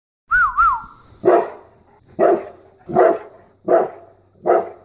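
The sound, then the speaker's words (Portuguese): A big St. Bernard dog named Andy, about 1.80 m tall, barks five times in a slow, steady rhythm, loud, after a brief warbling whistle-like whine at the start. No one speaks. “é o São Bernardo que eu tenho agora.”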